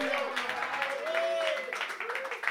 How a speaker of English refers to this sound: Big up to y'all, man. I appreciate y'all for coming out. Give yourself a round of applause, man. Put your hands together. Come on, y'all. Thank y'all for coming out.